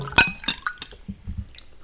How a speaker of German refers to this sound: Ja, ich schenke mir noch ganz kurz ein Glas Wasser ein. Mhm. Schön vor das Mikro, ich will Stimme das Plätschern hören. Damit unsere Zuhörerinnen alles schön bieseln müssen, wenn sie es hören.